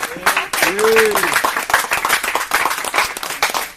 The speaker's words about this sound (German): Jetzt also ein, ein, Applaus. Einmal.